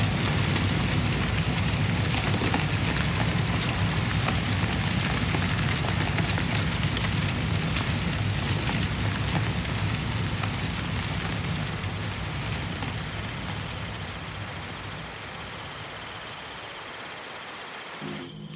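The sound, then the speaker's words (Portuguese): A large fire burning wild cane in a cane field roars and crackles with a dense, continuous stream of sharp pops over a deep rumble, loud, slowly fading toward the end. No voices are heard. “Minha gente, deixe o fogo, deixe o fogo laborar fogo pegou na cana brava, ninguém mais passa por lá.”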